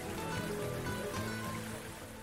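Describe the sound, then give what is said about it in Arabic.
Steady rain patters down with a dense, continuous hiss of drops hitting the ground, even throughout, with a faint low hum underneath and no talking. “ركز على صوت القطرات اللي تضرب إيقاعها فرحا بلقاء الأرض بعد جفاء طويل لاحظ إيقاع المطر انسى الطيور والناس أي صوت ثاني انساه ركز فقط على وقع هذا الصوت”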